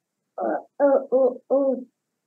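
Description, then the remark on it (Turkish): A child's voice imitates a monkey call with four short, hooting vocal bursts in quick succession, fairly loud, with brief gaps between them. “ne yapıyor maymun peki? Nasıl ses çıkar?”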